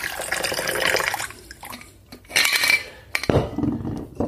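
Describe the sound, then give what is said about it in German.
A freshly shaken cocktail is poured into a glass over one or two fresh ice cubes, a splashing trickle broken by a couple of pauses and soft clinks, ending in a brighter burst of pouring. “Dort ein bis zwei frische Eiswürfel dazu und über die Eiswürfel geben.”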